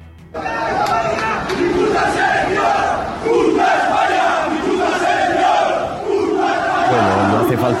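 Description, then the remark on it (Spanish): A large crowd of Osasuna football fans chants loudly in unison, repeating a rhythmic phrase several times with brief swells and pauses, sounding like a packed stadium section. “reproducir el grito, uno puede perder la Copa del Rey, pero no eran todos los aficionados de los Asuna pero eran unos cuantos.”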